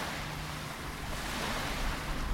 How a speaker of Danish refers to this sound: og det havet, I kan høre i baggrunden.